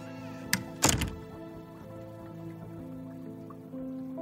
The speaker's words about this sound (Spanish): continúa entonces su camino por el pasillo y cierra la puerta de su quirófano tras de él.